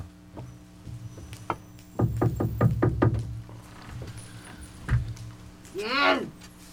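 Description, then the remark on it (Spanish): Someone knocks on an apartment door at the top of a building's stairs, a quick, evenly spaced run of about six firm raps, followed a moment later by a single softer knock and a brief high sound. “La puerta está abierta y sube las escaleras. Toca en un departamento.”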